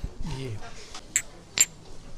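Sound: glasses clinking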